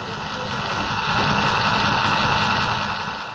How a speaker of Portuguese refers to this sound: O barulho que a gente está escutando direto aqui em casa é esse barulho que o computador está fazendo. Parece que o ventilador dele está com algum problema mas ao mesmo tempo que está incomodando, fica meio complicado de levar ele para consertar